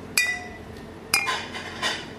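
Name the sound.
glasses clinking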